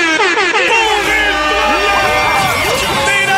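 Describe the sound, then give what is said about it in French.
A loud, sustained Golden Buzzer sound effect blares for several seconds, layered with an excited crowd screaming and cheering, the whole burst staying dense and loud throughout. “Ben, est-ce que vous pouvez préparer le Golden Buzzer?”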